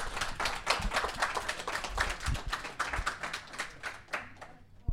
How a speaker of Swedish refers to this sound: Och så vill jag tacka alla handledare på Fontänhuset. Ni gör ett otroligt bra arbete och chefer och så vidare. Allihopa, en stor, stor applåd.